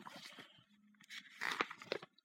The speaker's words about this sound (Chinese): 快回家吧，吧唧吧唧，这是小狐和小熊奔跑时的脚步声。